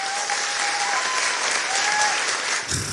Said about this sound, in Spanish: Bueno, esto se merece un aplauso, ¿no?